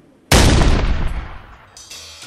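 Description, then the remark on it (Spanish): A single cannon shot booms out suddenly, loud, its deep rumble fading slowly over a couple of seconds with no talking. “El aleteo de una paloma, las olas del mar embravecido, el disparo de un cañón.”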